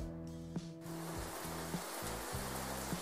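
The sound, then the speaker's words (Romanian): A steady, dense hiss of rainfall fills the background, with a low humming drone and a few soft thumps underneath. No one speaks. “Uh, de exemplu, sunet de ploaie.”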